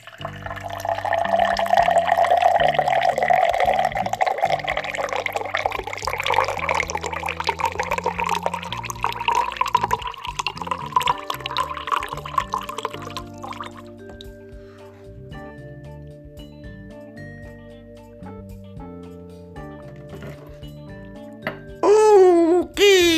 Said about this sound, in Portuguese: Então, pega o copo. Isso, pegou? Agora encha. Ó o barulhinho.